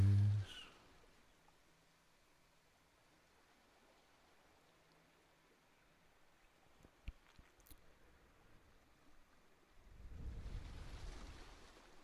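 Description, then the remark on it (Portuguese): Soft, low wash of small sea waves on a beach, steady, with a gentle swell of surf rising near the end. No voices. “Possamos imaginar-nos deitados numa praia, sentindo as pequenas ondas do mar, tocando nos nossos pés.”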